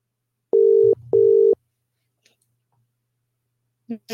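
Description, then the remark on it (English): An outgoing call rings from a computer: two loud, steady mid-pitched electronic tones of about half a second each, a short gap between them, then quiet before a voice begins. “I think I let me call her back from the computer.”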